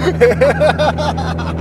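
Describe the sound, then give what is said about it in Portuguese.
A steady, low engine exhaust drone runs throughout without change in pace, while indistinct voices murmur over it. “É um escapamento.”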